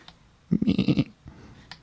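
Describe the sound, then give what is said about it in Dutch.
A single short, wavering bleat like a sheep or goat, about half a second long with a quavering, pulsing tone, fairly loud against near silence. “Het leek wel op een schaap of meer een geit, hè?”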